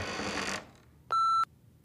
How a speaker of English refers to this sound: The phone started to beep again.